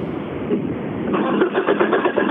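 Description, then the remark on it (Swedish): Rally driver Mats Jonsson's rally car engine cranks and struggles to start because of a car fault and a bad battery, a steady low mechanical churn that grows louder and more ragged halfway through with uneven pulsing, never quite catching into a clean idle. “Ja, men nu är det någonting som krånglar med bilen. Ja, och ett dåligt batteri också.”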